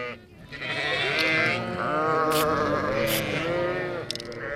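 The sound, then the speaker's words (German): Several sheep of a shepherd's flock bleat loudly and almost continuously, their wavering, overlapping cries filling the whole stretch with a noisy chorus. “Mensch, da ist ja ganz schön was los bei den Schafen. Die sind ganz schön laut, haben ganz schön was zu erzählen wahrscheinlich.”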